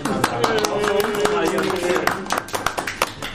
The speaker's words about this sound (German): Und der Applaus für uns übrigens.